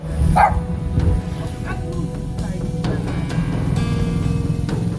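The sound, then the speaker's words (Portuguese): A tied-up female dog barks several times in short, scattered bursts at a house in São Paulo, over a steady low rumble of outdoor background noise. “E uma cachorra foi mesmo encontrada no local amarrada.”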